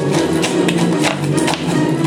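Footsteps tread at a steady, unhurried pace, about six soft scuffing steps over a constant low background wash, with no one speaking.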